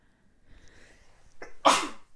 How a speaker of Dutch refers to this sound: Oh, ik moest even niezen tussendoor, sorry. Maar dat hoorde je zelf ook wel. sorry hoor.